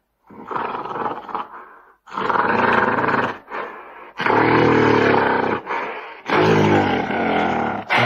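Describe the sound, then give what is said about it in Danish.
A gorilla roars and grunts in a series of loud, rough bursts separated by short pauses, with no talking. “Det er gorillaen.”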